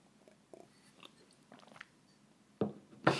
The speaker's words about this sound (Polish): Napiję się wody.